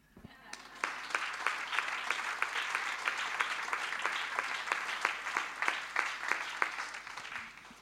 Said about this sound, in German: Und, und ich möchte einfach kurz für meine Eltern klatschen. Wenn ihr möchtet, dürft ihr mitmachen.